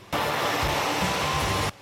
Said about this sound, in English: The hissing of the burning torch scares the fish and causes them to jump out of the water.